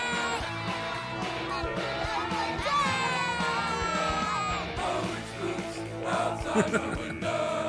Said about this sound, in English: oh, there's the scream. Yep.